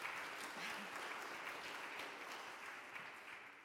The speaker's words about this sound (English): We can clap. We're allowed.